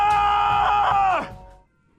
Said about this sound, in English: Okay, you just described all the South Shore, so can you just scream? All right. Oh!